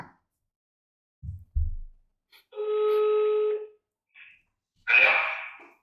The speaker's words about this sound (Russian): Давайте скорее послушаем, что же нам скажут. Гудки это у него идут, не у нас.